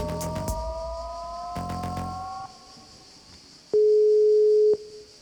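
A telephone line rings once as a live radio broadcast from the Festival d'Avignon calls the Fondation Abbé Pierre: a single loud, steady electronic tone lasting about a second, preceded by brief clicks and faint dialing beeps on a quiet line, with no one speaking.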